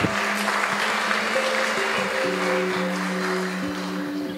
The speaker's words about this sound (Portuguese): Vamos dar uma salva de palmas aí, Senhor.